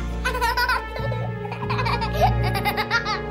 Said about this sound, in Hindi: किशन की धमकियां खत्म होते ही उस बच्चे की हंसी गूंजी